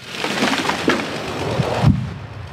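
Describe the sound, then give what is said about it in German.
A felled oak, 105 cm in diameter at the base, crashes down in a private forest: a loud rush of crackling, splintering branches builds, then a heavy low thud lands near the end, its impact shaking the forest floor even 100 metres away, before the noise drops to a dull rumble. “Der Aufprall erschüttert den Waldboden auch noch in 100 Meter Entfernung.”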